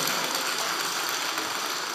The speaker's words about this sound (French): Merci beaucoup, messieurs. On les applaudit, s'il vous plaît.